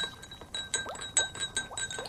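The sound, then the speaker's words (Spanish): A small spoon stirs salt into a glass of water until it dissolves, striking the sides in a quick, steady series of bright clinks and chimes, about two or three per second, with no talking. “Ahora agregaremos una cuchara pequeña de sal solo a uno de los vasos, luego revolver hasta disolver la sal.”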